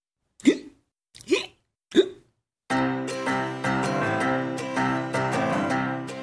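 Three sharp hiccups come in quick succession, evenly spaced about a second apart, each a short gulping yelp with a rising pitch, followed by music.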